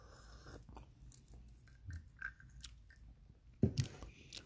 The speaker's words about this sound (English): sipping on this ancient tea. Yeah, I got a nice ancient tea from overseas. pretty nice. From India, actually.